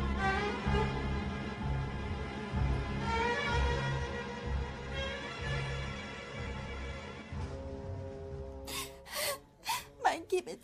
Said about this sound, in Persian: این گریه زاری هایت برای چیست اگر دست از گریه بر نداری تو را چنان میزنم حلاک شوی